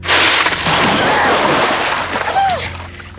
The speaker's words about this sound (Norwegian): Når hun ligger nedsenket i det varme, duftende vannet og holder på å sovne, øser jeg uten varsel flere spann med knust is i baljen.